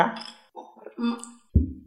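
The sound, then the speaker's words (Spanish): Glasses of tequila clink together in a toast, a bright brief chime near the start, with voices murmuring around it and a dull knock toward the end. “Vamos a brindar por Buddy Baby.”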